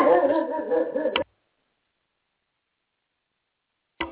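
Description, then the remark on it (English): A dog whimpers and yips in a short, whiny burst lasting about a second, followed by a few seconds of silence and then a brief new yelp at the very end. “Sorry, the dog's around.”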